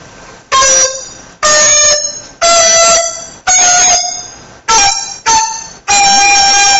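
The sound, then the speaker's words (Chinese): A dizi flute plays seven sharply tongued notes with the bouncing-tongue (tan tu) technique. Each has a heavier accented, plucky attack and a brief pitch change at the onset, imitating a sanxian string. Bright and buzzy in tone, loud and alone, with brief gaps between. “包括三，比如说三弦那个梆梆那个声音，所以他为了在笛子笛子上模仿出那种声音来，他就发明一种技巧叫弹吐。”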